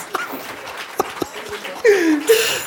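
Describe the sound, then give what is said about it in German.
A dog sound effect: after a few sharp clicks, two loud yelping whines slide downward in pitch, the second following quickly on the first. “Warum ein Hund?”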